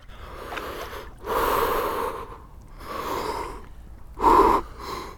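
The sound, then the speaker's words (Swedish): Sharp, breathy gasps come in uneven bursts, one after another, with a louder, strained gasp near the end, as a person steps into cold water. The breathing is unvoiced, with no talking. “Bra, andas ut långsamt. långa utandningar.”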